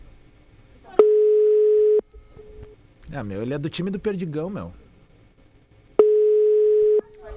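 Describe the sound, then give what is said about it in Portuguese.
A phone line's ringback tone sounds twice, each a steady one-second beep spaced several seconds apart, with nobody picking up. A man speaks briefly in the gap between the rings. “Com essas coisas de cobrança, ninguém mais atende no telefone, né, de número desconhecido.”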